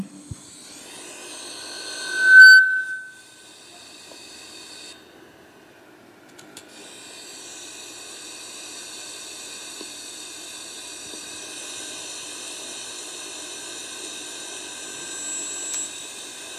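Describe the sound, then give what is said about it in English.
Thousands of monarch butterflies taking flight make a soft, continuous airy rush like wind. It swells after a brief high tonal chirp and holds steady for over ten seconds, with no voices. “It turns out that when they all take flight together, they make a sound like a rushing wind.”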